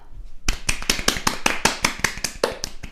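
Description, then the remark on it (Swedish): Brisk applause from a small group starts abruptly and continues steadily, the sharp individual claps coming quickly in a fairly even rhythm. No one speaks. “Kan vi ge en applåd till så en fantastisk orgasm?”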